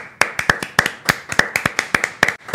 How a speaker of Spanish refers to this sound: Fino. Me encanta, por favor, oye, un aplauso a todos.